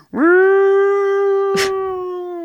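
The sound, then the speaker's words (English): A drunken woman on Aldgate High Street mimics a fire engine siren for a crowd of onlookers: one long, loud wail that swoops upward, then holds a steady mid-pitched tone, broken briefly by a short rasping burst. “It seems that she had been entertaining a crowd of onlookers with a drunken imitation of a fire engine.”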